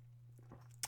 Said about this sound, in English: I do have a coffee, which I'm going to take a sip of right now, which I don't normally do when I'm recording, but my God, it's needed.